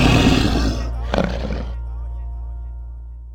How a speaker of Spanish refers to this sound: Lo único que logré fue que más duro sonara, pues los ronquidos se oían a tres cuadras. Dormir no he podido, mujer del diablo que ronca, o sean los vecinos. Pero un por favor, calle la loca. mujer no me deja dormir. Oye, como te ronca, oye.